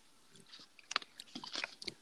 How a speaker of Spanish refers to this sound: Aquí escuchando, me agarraron dándole un trago a mi café.